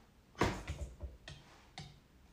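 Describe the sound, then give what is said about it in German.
A woodpecker knocks on a house wall: about six sharp, hollow taps spaced irregularly, the first loudest, with no voices. “Irgendwie ein Specht oder so klopft hier an dem Haus rum.”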